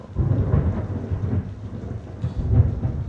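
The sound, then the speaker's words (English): Low, rumbling thunder rolls continuously with steady rain hissing underneath, a thunderstorm with a couple of louder swells and no talking. “that's God working out there, you know. I know y'all hear that.”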